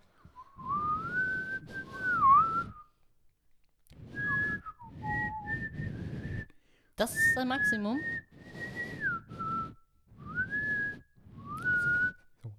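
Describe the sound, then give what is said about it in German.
Someone whistles a short melody, several wavering phrases separated by brief pauses, with a voice briefly speaking in the middle. “Ich kann nicht pfeifen übrigens.”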